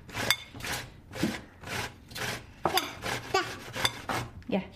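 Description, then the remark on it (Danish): Squash being grated by hand with a child helping: a steady series of about nine rough, raspy scraping strokes in a back-and-forth rhythm, fairly quiet, with faint clinks of utensils now and then. “at der bliver revet squash.”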